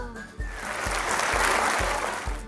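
An audience breaks into sustained applause, a dense crackling wash of clapping that swells and holds, with a steady low thumping beat pulsing underneath about twice per second.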